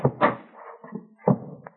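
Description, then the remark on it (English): A door is opened, with a couple of heavy latch clunks, a brief low creak, then another solid thump and a small click at the end. No voices. “If I have to open another door”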